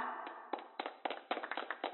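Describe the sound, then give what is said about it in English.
A short burst of audience applause for the cast at the end of the St. Mark's annual show, sparse and uneven, with distinct individual claps landing roughly every quarter second, thin and muffled, with no voices. “Let's hear a big hand for our cast.”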